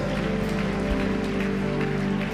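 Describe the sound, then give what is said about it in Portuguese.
A church audience applauds steadily to Jesus, welcoming those who have just said a prayer for the first time that night; a dense, continuous patter of many hands clapping at once, holding an even loudness throughout with no voices rising above it. “E a igreja pode receber eles com uma salva de palmas a Jesus, todos que fizeram esta oração pela primeira vez nessa noite.”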